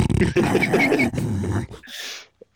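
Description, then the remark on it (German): A person imitates an English bulldog with a drawn-out, growly bark-like vocal sound, fairly loud, ending in a short breathy burst before falling silent. “englische Bulldogge mit so hängenden Wangen und so, so, einfach.”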